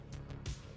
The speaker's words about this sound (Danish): lyden af en græslåmaskine, og øh, det er lyden af en helt ny lokation